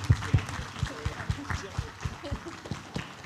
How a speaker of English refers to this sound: And just to upset the babies, can we just give God a hand clap for this blessing we have today?